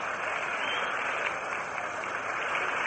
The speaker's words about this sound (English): And some of the White Sox fans still give uh, Wynn a rippled applause as he returns to the White Sox dugout.